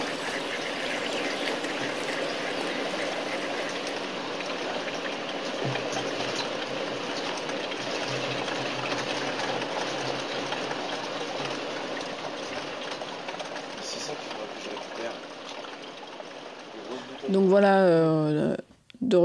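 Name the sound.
water running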